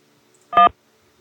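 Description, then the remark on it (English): A single short telephone keypad tone, a clean dual-pitched beep lasting about a sixth of a second, sounds once, loud, with quiet before and after, as a key is pressed in an automated phone menu. “For bee removal, press one. For pest control, press two. For wildlife, press three.”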